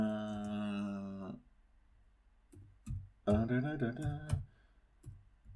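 clicking

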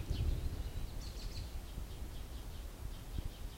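small birds singing

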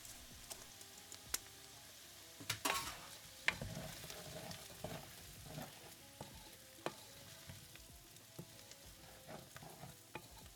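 stirring food

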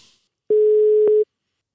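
telephone ringback tone

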